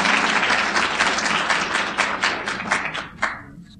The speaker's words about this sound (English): And you guys ought to give yourselves a big round of applause.